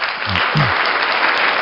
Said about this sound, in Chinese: 在这里这个就感谢老师给我们讲课，先先来一个掌声吧，还没开始咱们就来一个掌声吧。